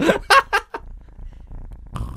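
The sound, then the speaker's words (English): A cat called Small Cat purrs in a soft, steady low rumble for about a second, after a few short bursts of laughter or voice. Another voice sound comes in at the end. “Nicely done, small cat.”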